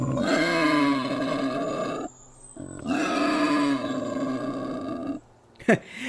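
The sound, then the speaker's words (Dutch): A family of wild boars, two adults and four piglets, grunts loudly in two long, continuous bouts of deep, rumbling snorts while rubbing their snouts over the ground in search of food, with a short pause between bouts and a brief sharp sound near the end. “ik haal even mijn ultramicrofoon uit om te luisteren welke geluiden ze maken.”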